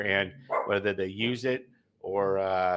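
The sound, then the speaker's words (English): Dogs, Cooper Kupp and the Cooper Pup, bark in the background, a few yips and woofs mixed beneath a man talking in the foreground. “if you can hear Cooper Kupp and the Cooper Pup in the background there”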